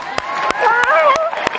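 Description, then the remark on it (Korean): Five sharp hand claps in a steady, evenly spaced rhythm, with a lively voice calling out between and under them. “야 맛있게 먹을 줄 아는 이 예쁜 마음 칭찬해 박수.”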